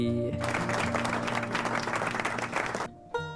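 A burst of applause, dense clapping that starts abruptly, holds steady for a couple of seconds, then cuts off, with a tonal musical sound faintly underneath and returning briefly after.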